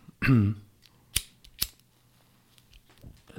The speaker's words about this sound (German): Ich zünde jetzt den Knaller, ich zünde mir jetzt eine Zigarette an